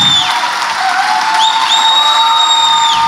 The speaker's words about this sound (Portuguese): Senhoras e senhores, mais palmas.